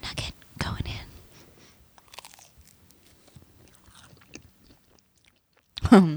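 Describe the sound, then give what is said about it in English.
Crunchy bites into hot chicken nuggets, with a loud crunch at the start and another near the end, quieter chewing and mouth sounds in between, plus some soft whispery breath. “Okay, guys, this is the chicken.”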